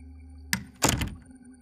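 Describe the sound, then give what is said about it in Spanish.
A bedroom door swings shut: a short creak-like scrape, then a heavy thud with a brief rattle, fairly loud, fading into quiet. “Y a continuación se cerró la puerta.”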